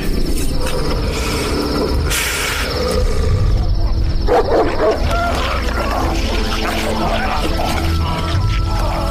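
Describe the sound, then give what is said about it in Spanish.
A pack of dogs barks and snarls loudly and without pause, with harsh bursts of barking breaking through a dense, rough background of growling. “y lo entregó a los perros para que terminaran con él.”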